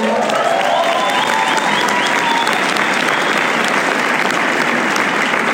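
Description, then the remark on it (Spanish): Loud, sustained audience applause welcoming a person who has just been introduced, with dense, steady clapping throughout, plus a few faint whistles rising above the crowd noise early on. “les pego un aplauso fuerte.”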